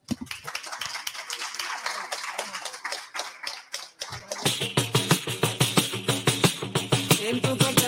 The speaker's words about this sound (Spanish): Así que nada, un aplauso muy fuerte para todos